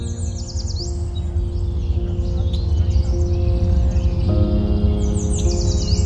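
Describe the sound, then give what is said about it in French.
Small birds chirp in quick, high sweeping bursts in front of a house, clearest at the start and end, over a steady low mechanical hum that runs throughout. “Et là, je suis en avant, je promène le chien en avant de la maison et j'entends des oiseaux fredonner.”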